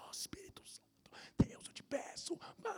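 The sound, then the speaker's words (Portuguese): A voice whispers rapidly and softly in private prayer, mouth moving quietly, with breathy hissing syllables and faint lip and tongue clicks, without clear spoken words. “sabe quando você está orando, mas é para você, mas mesmo você está mexendo a boca, você tem, tem um momento que você faz essas loucuras.”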